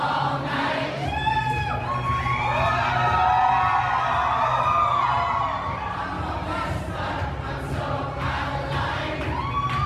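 A crowd of about 18,000 New Yorkers, pouring out of Madison Square Garden onto the subway platforms on 3 March 2019, sings together loudly, many voices rising in sustained, wavering melodic lines over a dense, steady roar, an anthem chanted in unison.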